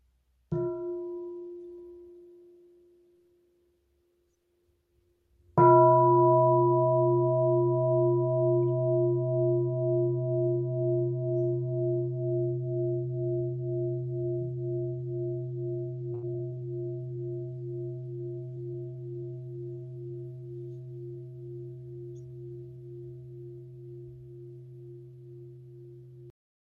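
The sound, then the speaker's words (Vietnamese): A Buddhist mindfulness bell, invited by a nun, gets a soft preliminary tap, then one full strike whose deep, pulsing resonance hums on for some twenty seconds, slowly fading. No voices are heard. “xin sư cô thỉnh một tiếng chuông cho mọi người buông thư”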